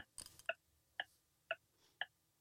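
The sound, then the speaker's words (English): A quiz countdown clock set to 15 seconds ticks steadily, four crisp, evenly spaced ticks about half a second apart, following a brief scratchy burst at the start; no one speaks. “15 seconds on the clock.”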